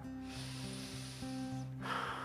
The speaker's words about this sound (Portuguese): Respirando fundo.